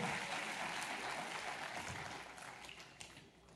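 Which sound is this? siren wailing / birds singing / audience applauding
audience applauding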